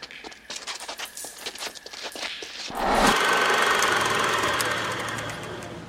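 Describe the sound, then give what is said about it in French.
In a film scene, a motorcycle engine putters with a rapid, uneven knocking as Mickey Rourke's character suddenly appears on his motorcycle to save his brother Rusty James in a fight, then surges into a loud, rough roar that holds steady and slowly eases off toward the end. “Là, on vient d'entendre en fait la première, les premiers échanges entre les deux frères, puisque c'est une scène assez euh, emblématique du film où euh, Mickey Rourke apparaît d'un seul coup sur sa moto.”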